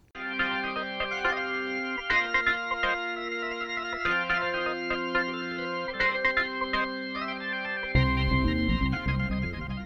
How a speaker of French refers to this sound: Et eh bien écoute, je te propose de passer sur la dernière partie de l'émission qui est un petit peu plus légère. Attention, jingle.